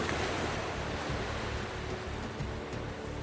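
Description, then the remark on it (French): A steady, rushing roar of ocean waves breaking, continuous for the whole stretch, with no voices over it. “À la fin, ils volèrent si bas que la crête des vagues leur mouillait les talons.”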